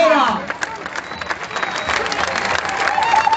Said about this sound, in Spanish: Fuerte aplauso para todas nosotras que Desde la Comisión de Mujeres Trabajadoras de GELATAM, les saludamos orgullosas en este día tan significativo.